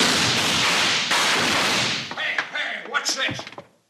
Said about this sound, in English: Jingles, rip open that sack of flour. Now? Yeah. I said. Now throw that sack of flour, Jingles. Okay, here goes.